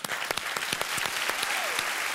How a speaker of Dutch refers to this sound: Geef ze een applaus.